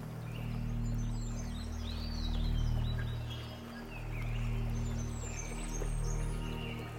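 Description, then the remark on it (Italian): Forest ambience: scattered high birdsong chirps and twitters ride over a steady rushing wash like a nearby stream, with a low continuous rumble underneath. No voices. “che tu stia indossando i tuoi auricolari migliori per godere dei suoni del bosco e del ruscello vicino a te.”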